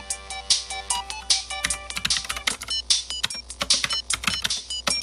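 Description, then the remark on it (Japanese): Rapid, irregular clicking of a computer keyboard and mouse as tabs are being closed, fairly loud, with steady tonal music or chimes faintly underneath and no one talking. “ちょっと今、タブを消してます。”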